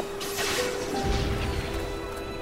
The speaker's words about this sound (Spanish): ¿Qué es eso? ¿Qué ha pasado? Son cohetes. Debe de haber encallado algún barco en la bahía.